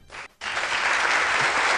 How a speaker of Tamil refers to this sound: ஒரு கைத்தட்டல்கள் கொடுங்க